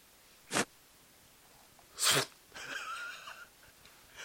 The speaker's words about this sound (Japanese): これはティッシュとった音や。